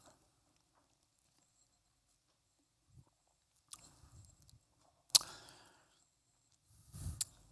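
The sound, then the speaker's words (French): Quiet, irregular bursts of crunching and chewing as people eat small communion bread rolls, with a sharper crackle midway and long near-silent gaps between the mouth sounds. No one speaks. “Donc prenons le petit pain en mémoire, ce que Christ a fait, sa souffrance à la croix, son corps brisé.”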